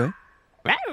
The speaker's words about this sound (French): Ça, c'est le cri du renard amoureux. C'est en décembre. Hein. Ah ouais. Ah Voilà. Et c'est comme ça qu'ils se rencontrent.